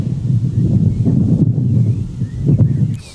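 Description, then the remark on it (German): A loud, blustery rumble of wind buffets the microphone for about three seconds, steady with a slight surge near the end, and no one speaking. “Jetzt warte ich auf die Windböe.”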